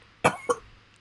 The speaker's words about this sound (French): j'ai peut-être la toux grasse. Moi, j'ai dit j'avais la toux sèche. Je sais pas grasse, c'est celle que ça sonne comme si tu t'étouffes dans ta mort en même temps.